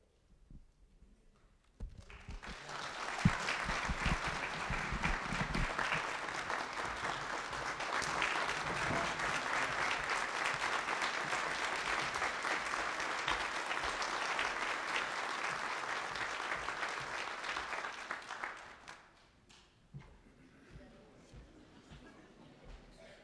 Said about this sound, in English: You don't have to clap for me.